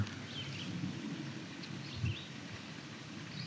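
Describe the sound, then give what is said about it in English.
Faint bird songs chirp intermittently over a steady low outdoor rumble, with a few short phrases scattered through: a red-winged blackbird and a red-eyed vireo calling at a culvert with a couple of trees. “You can hear red-winged blackbird. You can hear red-eyed vireo.”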